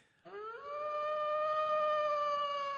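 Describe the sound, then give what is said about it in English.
A woman on a big boulder overlooking the lake in the Rambles of Central Park lets out one long wolf-like howl, swooping upward at the start and then holding a steady, loud tone for a couple of seconds, with no talking around it. “She's on that big boulder that overlooks the lake. And she's howling incessantly”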